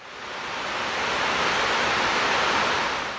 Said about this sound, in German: Beeindruckend. Aus allen Öffnungen der Mauerkrone stürzt das Wasser mit lautem Getöse fast 50 Meter in die Tiefe. Der See ist nach der Schneeschmelze mit rund 200 Millionen Kubikmetern quasi bis zum Anschlag gefüllt.